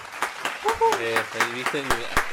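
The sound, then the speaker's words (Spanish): A handful of sharp, fairly evenly spaced hand claps from a small group applauding the host, sounding thin rather than like a full crowd, with people talking and laughing over them. “Aplauso, aplauso, aplauso.”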